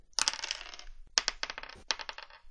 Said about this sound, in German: Du hörst von innen drin durch die Tür hindurch raues Gelächter. Du hörst des Öfteren mal so klappernde Geräusche. Ungefähr so.